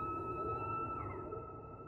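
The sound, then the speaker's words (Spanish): A whale's first spout as it surfaces: steady, drawn-out whistle-like tones held over a low rumbling wash, continuous and fairly quiet for about two seconds, with no talking. “El primer chorro. Antes que en los ojos, en los oídos.”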